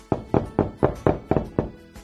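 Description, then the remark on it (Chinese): Seven sharp knocks on the door of the little turtles' house, two characters knocking together, in a quick, fairly steady rhythm, each a solid thud with a bright attack, moderately loud with no voices. “小趣和甜甜一起敲门。”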